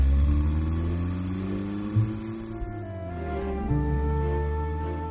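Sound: car driving away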